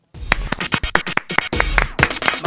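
Hand claps ring out in a quick, slightly uneven series, about a dozen sharp, loud slaps in a couple of seconds, with no voices heard.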